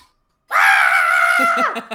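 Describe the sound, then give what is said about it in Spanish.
A voice imitates an excited woman's scream: one loud, sustained high-pitched shriek held for over a second, then dropping off into a few short breathy bursts. “Y empieza a gritar así.”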